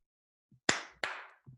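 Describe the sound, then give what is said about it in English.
Two sharp, loud hand claps given as congratulations, about a third of a second apart, each with a bright crack that rings out briefly, plus a few soft low thumps before and after. “Two clap congrats.”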